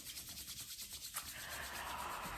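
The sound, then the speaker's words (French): A soft, dry swishing of palms rubbing together as part of a guided exercise, first in quick repeated strokes, then merging into a steady continuous rasp. Fairly quiet, with no one speaking. “Donc euh, là, tout simplement, vous pouvez vous frotter les mains,”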